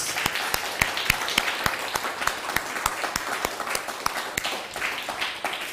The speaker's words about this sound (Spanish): Pues ahora sí, un fuerte aplauso a todas las naciones, por favor. Baruch Ah, que se escuche más fuerte el aplauso. Vamos, vamos.